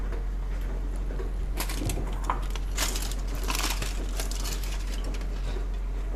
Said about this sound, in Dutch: En dan ga ik de eieren even openmaken. Vind ik mooi, maar dat hoeft helemaal niet. Ze zijn niet helemaal hard gekookt, maar ook niet mega zacht.